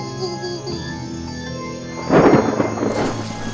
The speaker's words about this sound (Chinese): 这时，忽然吹起一阵风，又刮起一阵雨，雨滴不断不断的拍打着他们。